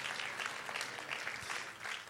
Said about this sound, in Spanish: Vamos, si alguien que lo vea, que le dé un aplauso. Si usted no ve nada, quédese con los brazos cruzados. Pero alguien que tenga visión esta mañana, que le dé un aplauso al Señor y que diga, vamos a alcanzarlo en el nombre de Jesús.